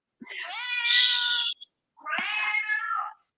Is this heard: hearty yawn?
no